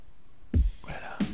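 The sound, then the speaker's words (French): A couple of short clicking knocks about half a second apart as someone's teeth chatter together, with soft breathy hiss in between and no talking. “Tu claques des dents, t'as peur.”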